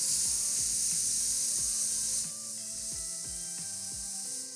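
The de-esser knob on a mic preamp is turned in short bursts to adjust how much sibilant noise is suppressed, producing a series of small ratcheting clicks over a steady background hiss, with no one speaking.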